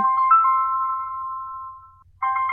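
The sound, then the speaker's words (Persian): A phone rings with a steady electronic tone that holds for about two seconds, breaks briefly, then starts ringing again, loud with no voices. “بفرما جواب بده شاهد از غیب رسید”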